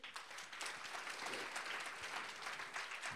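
audience applause

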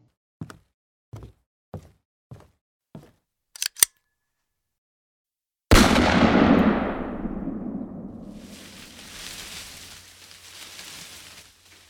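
gunshots

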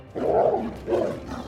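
tiger roaring

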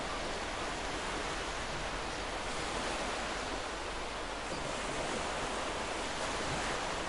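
ocean waves

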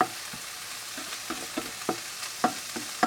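shrimp sizzling

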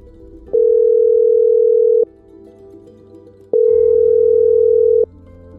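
telephone dial tone

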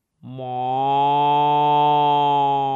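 dairy cow mooing

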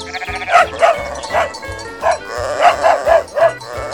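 sheepdog barking

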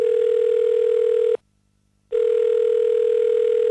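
telephone dial tone

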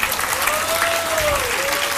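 audience applause

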